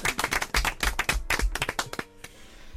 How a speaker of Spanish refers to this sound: Pues un aplauso para todos los abuelos.